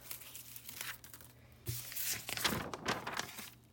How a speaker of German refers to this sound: Papierschnipsel.